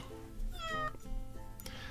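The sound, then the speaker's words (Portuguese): A cat meows a couple of times in quick succession, drawn-out tonal cries heard clearly with no talking, just a faint background hum. “O sétimo gato que o menino ganhou, a primeira coisa que fez ao entrar na casa foi dizer miau.”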